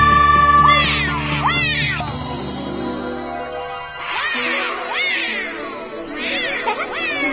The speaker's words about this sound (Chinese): 哇哦，你看，可以看到美洲虎的吼声哎！